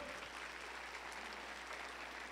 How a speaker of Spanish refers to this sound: Alguien dele un aplauso fuerte